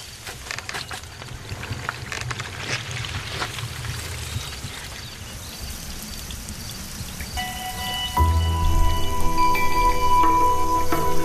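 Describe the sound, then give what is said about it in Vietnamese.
Water from a modern drip irrigation system patters and trickles steadily across a vegetable field, watering the plants precisely to save water. After about eight seconds a steady, louder low hum joins in and continues to the end. “Với hệ thống tưới nhỏ giọt, Paco có thể tưới nước chính xác cho cây rau của mình và tiết kiệm phần còn lại.”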